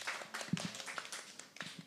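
A crowd breaks into warm, steady applause, many hands clapping in a dense, continuous patter that stays fairly even throughout.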